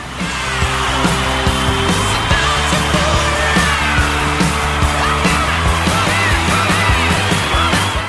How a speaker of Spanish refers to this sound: Pará con los aplausos, para un poco.